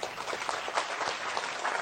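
Steady applause from a group of people, dense overlapping claps forming a continuous bright wash of sound at moderate loudness, with no talking over it.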